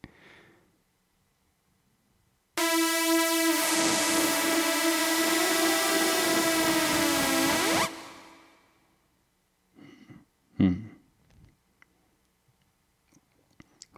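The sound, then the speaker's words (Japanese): A Yamaha AN2015 synthesizer holds one loud, bright, buzzy note for about five seconds, its pitch wavering and sliding downward before it cuts off, followed by a few soft clicks and knocks. “シンセ自体で遊ぼうと思ったらやっぱりあれですね私の好きなヤマハの AN2015 AN2015 っていうのかなこれの方がやっぱり面白いのは面白いですねこれシンセの音をこうグリグリっと遊べるのが。”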